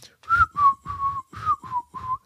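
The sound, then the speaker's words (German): Someone whistles a simple children's song melody, six clear notes stepping up and down in a steady rhythm, fairly loud with no talking. “Und dann habe ich tatsächlich ähm, gepfiffen.”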